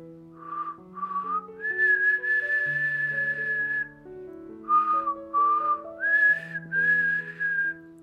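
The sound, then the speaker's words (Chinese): Loud, tuneful whistling at a mountain resort, in two phrases: short rising notes followed by long sustained high tones, with a brief pause midway, over soft background music. “威利就大声地吹着口哨。”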